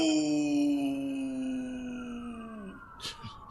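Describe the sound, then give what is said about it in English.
A police car siren holds a steady wailing tone that slowly slides lower, fading as it winds down, followed by a few brief clattering noises near the end. “Hmm, this place is filling up with cops.”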